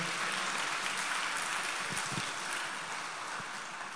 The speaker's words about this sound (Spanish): Dele un aplauso al Señor, por favor, en esta noche.